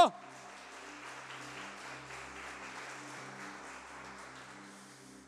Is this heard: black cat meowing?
no